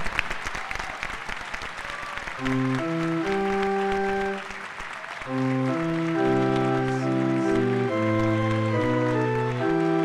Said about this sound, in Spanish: Y ahora sí, como expresión de nuestro cariño, de nuestra amistad, de nuestro agradecimiento, te regalamos de todo corazón este fuerte aplauso. Que Dios te bendiga.